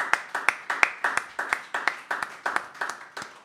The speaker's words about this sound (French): Nous les applaudissions. Nous leur disions merci pour ce qu'elles ont fait.